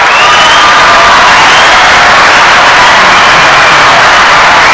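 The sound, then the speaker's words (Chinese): Loud, dense applause fills the whole stretch, a steady wash of clapping hands mixed with crowd noise and some cheering, with no talking over it. “如果我有很聪明的话，哎，小姨，你应该给我一点掌声吧。”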